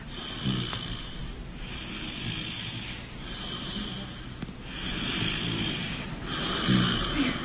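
A person snores loudly, rough rasping breaths repeating in a steady rhythm of about five cycles, each with a hissy, airy edge, with no talking.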